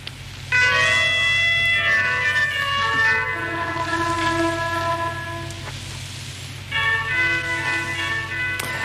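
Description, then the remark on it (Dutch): The opening signal of the Atlantiksender (Deutscher Kurzwellensender Atlantik), a World War II shortwave radio station: a slow melody of clear, bell-like chimes, pausing briefly then resuming, played over a constant hiss of static. “Ja, zo begon iedere avond de Atlantiekzender in de Tweede Wereldoorlog klinkt Duits, toch?”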